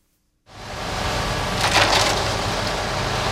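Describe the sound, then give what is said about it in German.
After a brief silence, a concrete mixer starts churning with a loud, steady, gritty rumble and a rough scraping swell partway through, continuing without pause and with no voices. “Man hört sie noch auf fast jeder Baustelle. Betonmischer.”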